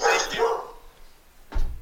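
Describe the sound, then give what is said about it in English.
A dog barks loudly, a harsh yelping burst followed after a short pause by another sharp bark. “These son of a bitch dogs.”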